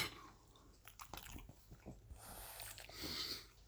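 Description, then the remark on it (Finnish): A dog sniffs at a Karelian pie, a quick run of short snuffles and soft mouth noises followed by a longer breathy huff, fairly quiet with no talking. “Melkein koira ehti saada mun Karjalan piirakan.”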